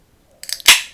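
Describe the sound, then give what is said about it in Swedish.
A beer, a Beavertown Gamma Ray American Pale Ale, being opened: a few small metallic clicks, then a sharp, bright pop followed by a short fizzing hiss that fades out. No one speaks. “Ska jag öppna en öl här.”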